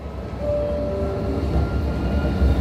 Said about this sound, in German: Hohenschönhauser Straße. Die Tram biegt ab,